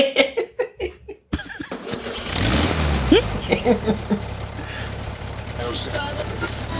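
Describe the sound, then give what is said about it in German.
After a few seconds of rhythmic voices and a brief pause, an old tractor engine cranks, catches with a rising rev, then settles into a loud, steady chugging idle. “Hast du dich für dieses Intro eigentlich bei Günther den Treckerfahrer inspirieren lassen?”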